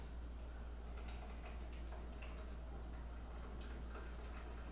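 Water pours steadily into a small glass for a few seconds, a continuous splashing trickle with faint drips, and no voices.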